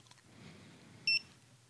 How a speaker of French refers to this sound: Donc là, ça fait plus qu'un bip, ça fait pas bip bip. Là, ça fait un bip.